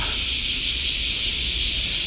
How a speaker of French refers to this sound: Allez, un petit coup de cigale.